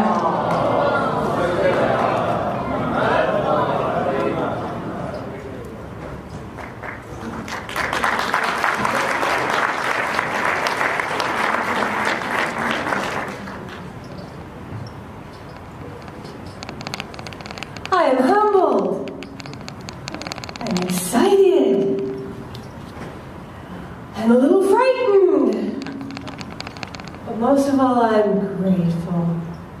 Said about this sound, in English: But you will see that it's an active and vibrant community led by this wonderful reverend who we welcome to our stage with a loud salawat ala Muhammad wa ala Muhammad.